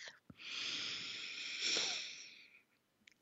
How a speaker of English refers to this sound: So before I do that, I'm going to encourage you to slow down, take a breath,